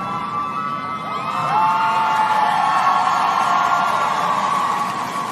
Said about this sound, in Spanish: Están aplaudiendo.